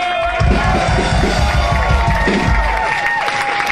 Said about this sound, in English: So give yourself a big round of applause. Come on.